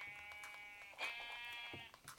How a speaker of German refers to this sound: Endlich! Wir haben zwei Schafe. Wir haben zwei von drei.